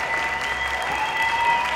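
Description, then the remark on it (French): Dense, steady applause from a large audience, a royal court standing to applaud the actors at the end of a play, with enthusiastic cheering and a few high whistle-like tones mixed in, sustained at an even loudness throughout. “La salle est remplie de cris de joie et d'applaudissements enthousiastes.”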